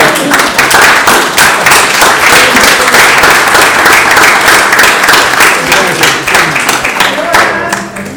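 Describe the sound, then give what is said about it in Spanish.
Steady, loud applause from a crowd fills the whole stretch, a dense patter of many hands clapping at once, with some laughter and voices mixed in underneath. “Y pude hacer una historieta gracias a él, así que aplausos.”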